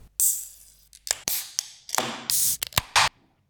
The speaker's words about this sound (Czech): takže jak se to dělá? Prostě otevřeš pivku. No postupně, tak Petr první, ty druhý a třetí.